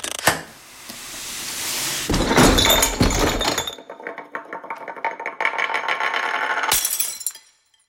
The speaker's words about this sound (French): La boîte est maintenant par terre, ouverte, avec toutes les surprises au sol, dont une brisée en mille morceaux.